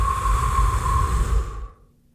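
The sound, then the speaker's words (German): A slow, deliberate breath during a box-breathing exercise, a loud, airy rush lasting about a second and a half before fading into quiet. No one speaks. “Ein- und Ausatmen.”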